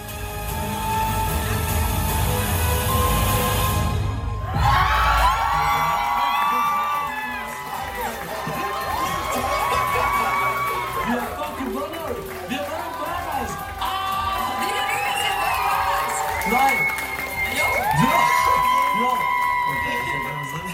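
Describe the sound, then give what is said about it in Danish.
A packed hall erupts in loud, sustained cheering with whoops and shouts, the crowd noise swelling and dipping over about twenty seconds, with scattered voices calling out throughout. “Men skal vi lige høre, hvordan det lød i, i salen, ja.”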